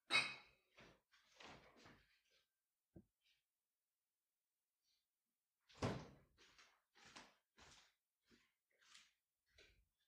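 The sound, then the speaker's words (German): A refrigerator door opens with a thud, followed by soft rattles and clinks as a beer is put inside, then shuts with a second, louder thump and more light clattering. No one speaks. “Ich stelle ja. mir ein Bier in den Kühlschrank für danach.”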